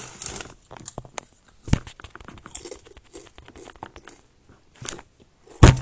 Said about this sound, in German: Digga! Das ist gerade mein, mein ähm, Dings runtergefallen. Mein Mikrofon.